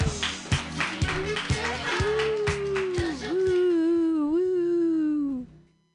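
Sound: audience clapping hands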